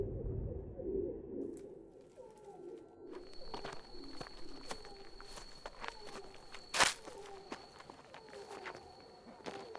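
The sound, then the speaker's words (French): Heavy footsteps walk at a steady, even pace, each step a dull thud with one louder stomp among them, while pigeons coo softly in the background and a thin high tone hums throughout. “Anna se leva enfin, contourna la table et se mit à marcher pesante.”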